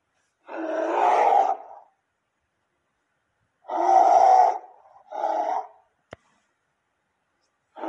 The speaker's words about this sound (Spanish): De pronto, los guerreros fueron atacados por un enorme oso.